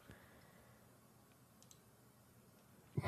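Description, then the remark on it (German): Dice clatter faintly across a surface: a few light, scattered clicks, then a louder rattle at the very end. No one speaks. “Dann würfel mal bitte auf.”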